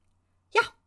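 A cat gives one short, sharp meow, fairly loud, in an otherwise quiet moment with no talking.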